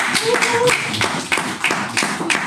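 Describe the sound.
A small group claps for a couple of seconds, sharp close hand claps landing in a loose, uneven rhythm, with voices murmuring underneath.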